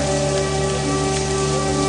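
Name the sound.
shower water running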